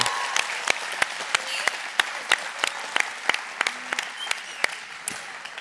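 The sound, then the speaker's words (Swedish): An audience claps steadily, a dense wash of many hands with sharper individual claps popping out in a fairly even rhythm, sustained at moderate loudness with no voices. “Alltså en applåd.”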